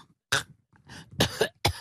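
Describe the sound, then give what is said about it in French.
A short series of four or five harsh coughs in quick, uneven succession, with brief pauses between them and no talking. “on a juste le droit de tousser entre deux trucs.”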